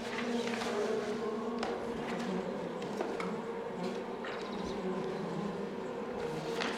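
A dense, steady drone of many bees humming inside a hive box, continuous, with faint higher buzzes flitting over the low murmur throughout; the bees are getting louder as the box fills up and may swarm.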